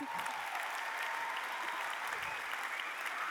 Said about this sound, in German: Give them a round of applause. Gebt ihnen einen riesen Applaus.